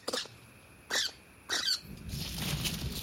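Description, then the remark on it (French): Three sharp, high-pitched alarm squeaks from an adult small nocturnal rodent warning its family as a cat's shadow passes, spaced roughly half a second apart, followed by a soft rustling hiss. “Au passage de l'ombre d'un chat, un des adultes donne l'alerte. Il tout et crie pour prévenir toute la famille du danger.”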